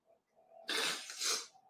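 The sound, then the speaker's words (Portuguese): A single forceful sneeze: a sudden, harsh, hissing burst of air that surges twice before trailing off, preceded by a faint quiet breath. No one speaks. “A pessoa precisa espirrar”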